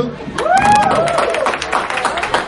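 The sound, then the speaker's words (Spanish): A live audience claps steadily and loudly for a cosplayer costumed as Red during a cosplay applause contest, with rising whoops and cheering voices mixed into the dense patter of hands throughout. “Aplausos para Red”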